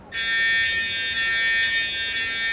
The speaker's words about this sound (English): The routine fire alarm test is a case in point. Attention, please. Attention, please. Shouts a voice that is literally impossible to ignore. This is a test. It roars, making it clear that your attention is not, in fact, required.